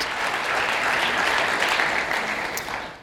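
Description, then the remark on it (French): Sustained applause from a sizable conference audience welcoming the speaker, a dense steady patter of many hands clapping at once, fairly loud and continuous, tapering slightly at the very end. “Je vous remercie de cet accueil euh, tellement chaleureux.”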